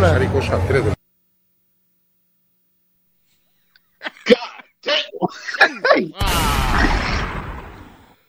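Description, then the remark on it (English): A single sharp, hard smack like an open hand striking a face, followed by startled voices and then a loud burst of noisy crowd reaction. “Did you hear the slap?”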